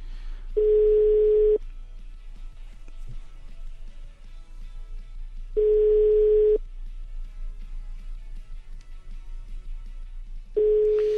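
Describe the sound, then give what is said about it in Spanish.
A telephone ringback tone on an outgoing call, sounding as three steady one-second tones spaced about five seconds apart, clear and moderately loud over a faint low hum, with no voices. “También es difícil atender a un teléfono un día después de lo que lamentablemente él está viviendo.”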